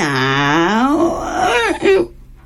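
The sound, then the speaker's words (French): In a language lesson, a human voice imitates a cat's meow to illustrate the English word 'cat': a drawn-out, wavering, somewhat strained vocal cry lasting about two seconds, fairly loud, with no other sounds around it. “je vous assure, c'est un chat, euh, peut-être un peu malade, mais tout de même un chat.”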